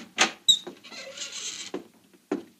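An unlocked house door clicks and thumps, then creaks open in a drawn-out groan lasting about a second, followed by a couple of soft knocks as it settles. It's fairly quiet, with no voices.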